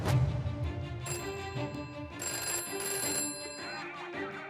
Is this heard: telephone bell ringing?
yes